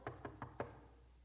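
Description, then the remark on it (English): Four quick, evenly spaced, sharp knocks on a door, followed by a short quiet tail with no voices. “And so the knock came on their door”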